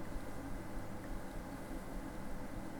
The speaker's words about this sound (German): Gleich müsstet ihr meinen Lüfter hören. So, ihr hört schon ein bisschen lauter ist jetzt geworden. Er muss jetzt die Dateien, er muss jetzt Dateien umwandeln. So, jetzt hört ihr es.